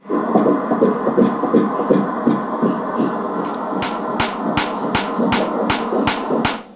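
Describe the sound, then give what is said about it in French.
A rapid, whooshing baby's fetal heartbeat pulses steadily throughout, and about halfway in a sharp metronome set at 160 beats per minute starts clicking at a matching fast tempo, layered over the heartbeat until the end. “Donc là, on entend euh, donc, euh, la superposition du battement du cœur euh, d'un bébé et d'un métronome qui est à 160 mmh. battements par minute.”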